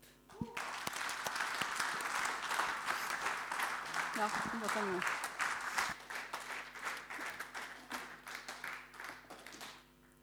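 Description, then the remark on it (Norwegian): An audience breaks into sustained applause, dense rapid clapping lasting several seconds before thinning out toward the end, with a few brief spoken words heard over it. “Gi de en klapp.”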